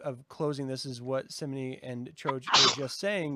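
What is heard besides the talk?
sneeze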